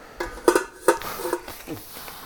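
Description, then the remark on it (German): Metal pots clank and clink a few times in close succession as they are wiped out and put back into a cupboard, with ringing knocks and some softer rubbing in between, no voices. “Naja, jetzt wische ich die Töpfe einmal aus, und dann kommen die wieder in den Schrank”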